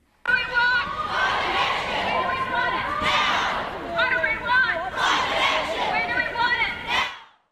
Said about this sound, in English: Chanting and cheers rang out in central Christchurch this afternoon. Hundreds of people with signs and banners calling for urgent climate action gathered at Cathedral Square and marched through the streets. High school students led the charge.